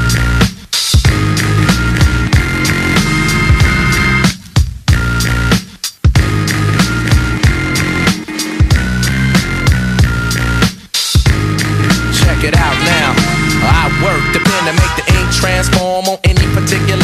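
A loud hip-hop track plays throughout with a steady beat and dense instrumentation, broken by a few brief, near-silent drops before the groove kicks back in.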